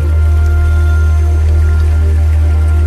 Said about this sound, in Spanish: Usted vaya tranquilo, escucha esta musiquita que le tenemos.